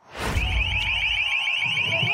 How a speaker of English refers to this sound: That's the LRAD sound cannon. It was one of many high tech devices that the police used against the people we're talking to in today's episode